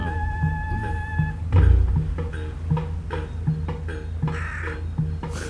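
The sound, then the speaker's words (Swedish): A common raven calls several times, giving a series of short, harsh croaks at irregular intervals, with a steady tonal hum in the background at the start. “Och där var en korp.”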